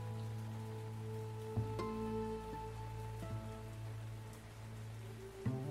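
Steady rain falls continuously, a soft hiss of drops on a surface, with a low sustained humming tone running beneath it and a couple of brief louder knocks; no one speaks.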